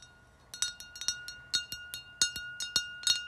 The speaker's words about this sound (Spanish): En los ruiditos de cristal se flipan.